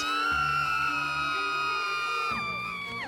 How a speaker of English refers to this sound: I remember coming back from the well early one morning with our water jug balancing precariously on my head when I heard screams coming from the distance.